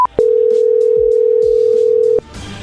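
A telephone dial tone: a brief higher beep, then a loud, steady low hum holding one pitch for about two seconds before cutting off abruptly into faint background noise. No one speaks.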